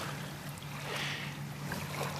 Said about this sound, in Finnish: jos vertaa siihen äskeiseen hetkeen. Joo, siihen äskeiseen, jolloin oltiin tässä, niin nyt tämä ei ollenkaan iskeydy tämä aalto tähän sillä voimalla. Että nyt tämä on tämmöinen lempeä kesäillan, kesäillan aallokko.